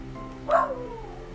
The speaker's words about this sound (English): a little bit of background of a dog barking so i'm very sorry my apologies